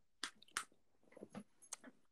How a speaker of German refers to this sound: Hast du die Lakritzschnecken am Start? Natürlich. Äh, warte, ich beiß mal ab.